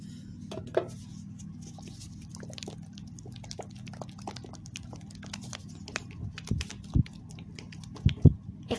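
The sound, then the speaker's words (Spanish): Quiet wet squishing of runny, strawberry-scented hand cream, gone liquid with age, between fingers, made of irregular sticky clicks and smacks over a soft low hum, with a few louder pops near the end. “Por el pasar del tiempo, la crema terminó muy líquida. Eh, a ASMR si es que logro.”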